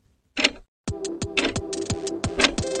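A brief rustly burst, a short pause, then a clock ticking rapidly and steadily, sharp clicks riding over a faint sustained hum, with no talking.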